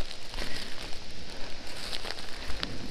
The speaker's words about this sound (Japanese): いやーここがきっと一番下であ雨降ってきちゃったな